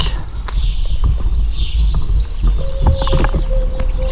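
Outdoor morning farm ambience at Majac with scattered hoof clops and knocks, faint bird chirps, a steady low rumble, and a thin sustained tone in the second half. No one speaks.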